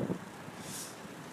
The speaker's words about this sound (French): Le vent était plutôt latéral, j'espère que c'est audible aujourd'hui. J'engage les derniers coups de pédale dans cette avenue que j'aime, qui m'amène à ma petite maison blanche.